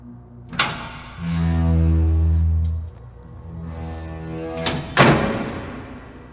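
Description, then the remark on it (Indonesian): The door of a factory's waste area slams shut hard, with sharp heavy impacts near the start and again toward the end, separated by a low rumbling drone, loud with no voices. “Terdengar suara pintu area limbah terbanting dengan keras.”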